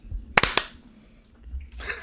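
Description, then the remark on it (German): A short burst of hand claps on a countdown of 3, 2, 1: three sharp smacks landing slightly out of sync within a fraction of a second, followed by near silence and a soft breathy hiss. “Noch ein letztes Mal. Aber ich bin mir sicher, das war ein Freund. Okay? Ist ja, ist ja nur zum 70. Mal. Das kriegen wir schon hin. 3, 2, 1, klatsch.”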